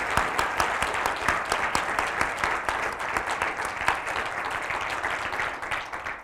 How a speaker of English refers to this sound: So I think before we start talking, I'd like to give her a, certainly a round of applause for a well-deserved award.